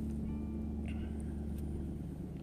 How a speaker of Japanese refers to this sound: 今日はちょっと車の中で録音をしておりますけれども